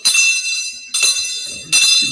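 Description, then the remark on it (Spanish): A small temple bell is struck three times in quick succession, each bright, shimmering ring sustaining loudly until the next strike. “Es una campana de templo, como pueden apreciar.”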